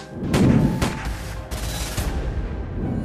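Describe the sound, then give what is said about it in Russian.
Several gunshots ring out in quick succession, about four sharp, loud cracks spaced roughly half a second apart, each followed by a short echoing tail over a low rumbling background. “Потом подошел к тому охраннику, выстрелил два раза в него, вернулся, гляжу, что промахнулся, прицелился тщательнее в голову, в голову выстрелил.”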